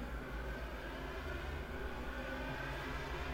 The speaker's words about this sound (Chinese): 这个摩托车啊，现在的时间是凌晨一点四十三分。我在家中可以如此清晰的听到这些开摩托车的这些年轻人在街上面在狂飙。